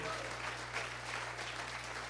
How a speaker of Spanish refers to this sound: Aplaude la gloria del Señor.